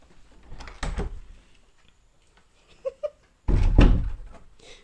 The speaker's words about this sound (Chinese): 你看现在在哭了啊，门打不开还在哭啊，也不是撞得很厉害，开门就不行，真是双重标准的啊！来，妈妈开门给你出来，来，来，来。